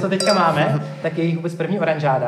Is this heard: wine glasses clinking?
yes